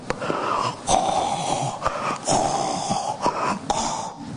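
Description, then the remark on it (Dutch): Someone imitates snoring with their voice: a run of wheezy, rasping breaths punctuated by sharp snort-like bursts, repeating unevenly for a few seconds with no words spoken. “En hij zat heerlijk te snurken op het schip.”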